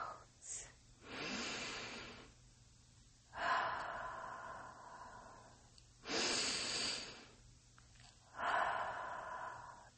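Slow, deep breaths drawn in and let out, four long airy swells spaced a couple of seconds apart, fairly loud, with quiet pauses between them and no talking.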